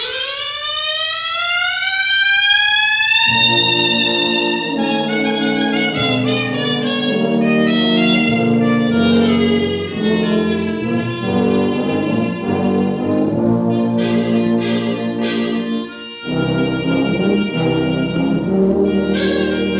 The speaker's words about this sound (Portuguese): Um som de instrumento melódico que eu adoro muito é o do clarinete ou clarineta. Eu acho doce, fino, se adapta tantas melodias ligeiras como as lentas, choradas.